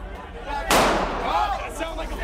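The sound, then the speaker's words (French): A single sharp gunshot, fired by a police officer as a rioter tries to get through the breach of a broken glass door, cracks out loud and decays quickly, amid a steady background of shouting and crowd commotion that continues afterward. “Ils cassent la porte vitrée et alors qu'une assaillante tente de passer par la brèche, un policier ouvre le feu.”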